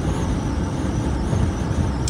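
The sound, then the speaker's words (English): Loud, steady rumble of a car interior while driving, a constant low road and engine drone filling the space with no voices. “I'm in this loud car.”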